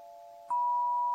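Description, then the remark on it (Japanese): A crystal instrument rings with a steady, pure sustained tone; halfway through, a soft strike adds a second, brighter and louder tone that hums on evenly alongside it, with no voices. “復帰しましたクリスタルの音色のご紹介”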